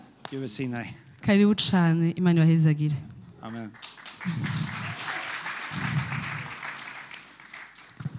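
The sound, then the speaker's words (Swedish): An audience bursts into sustained applause for the Lord, a dense steady patter of many hands clapping for several seconds, following a few seconds of raised, animated speech from a single voice. “Vi ska ge Gud all ära med applåder.”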